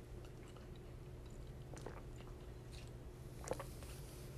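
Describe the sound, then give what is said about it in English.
Quiet mouth sounds of someone sipping tea, a few soft slurps and a swallow scattered over a low steady hum, with one slightly louder sip near the end. “Let me take a sip of my tea before I get into Lafayette.”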